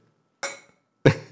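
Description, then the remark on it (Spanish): Two sharp glassy clinks about half a second apart, each ringing bright and high before fading quickly, as wine glasses are touched together in a toast, with no talking. “¿te puedo brindar una copa de vino?”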